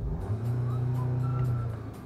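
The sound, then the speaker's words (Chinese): A Skoda car's engine revved and held at 3,500 rpm gives a steady, low, muffled droning hum with a faint higher whine above it, sustained evenly for about two seconds with no talking. “三千五百转，外面的声音很大，但是里面的声音还非常小，所以这个车在静音方面做的不错。”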